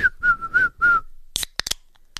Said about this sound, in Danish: Jeg kan ikke fløjte, når jeg griner. Nej, du kan heller ikke fløjte, når jeg griner.